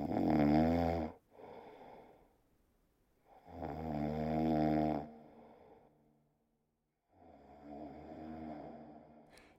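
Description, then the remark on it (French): A giant who has fallen back asleep snores loudly and deeply in three long, rumbling breaths, each a drawn-out rasping snore separated by brief quiet pauses, steady. “Gulliver avala l'eau de dix tonneaux, puis il se rendormit”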